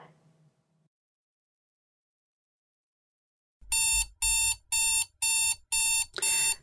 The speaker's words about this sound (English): Six a.m. arrives. Bellamy, your alarm goes off.